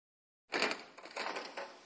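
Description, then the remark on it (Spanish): Two people open a restaurant door after a brief silence, with a sudden rattle and scrape followed by a second of uneven clattering and rustling as it swings. “Rafael y Nati abren la puerta del restaurante.”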